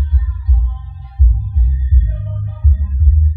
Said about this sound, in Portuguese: Eita, peraí, tá passando um carro fazendo barulho aqui.